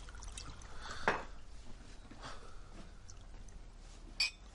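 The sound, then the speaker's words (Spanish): A short splash of whisky, about a finger's measure, poured into a glass, with a bright clink near the start and another near the end, quiet against a low hum. “Le da un vaso con un dedo de whisky.”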